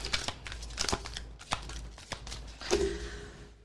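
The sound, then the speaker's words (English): Papers being shuffled and crinkled as someone organizes them, a steady run of rustling with sharp crackly bursts and louder crumpling toward the end, with no voices. “She just stopped shuffling. I can stop yet. I'm, you know me, I'm organizing.”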